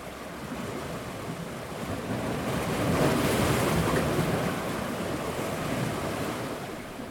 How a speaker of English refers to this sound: To me, nothing beats the sight and sound of ocean waves crashing down on the beach. I had the chance to enjoy the movement of the Pacific Ocean when I attended the NRC annual conference in San Diego earlier this year.